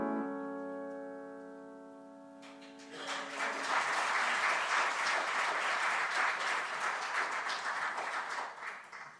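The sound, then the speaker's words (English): A sustained musical chord rings out and fades, then a crowd breaks into steady, loud applause that continues for several seconds with dense, rapid clapping. “Make them think the song's over and they'll have to clap twice that way.”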